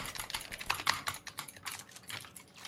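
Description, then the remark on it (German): Rapid, continuous clacking of a computer keyboard used to play a video game, keys struck in quick irregular bursts at a fairly quiet level, with no voices present. “Und du willst mir sagen, dass du erst seit einem Monat auf Tastatur spielst?”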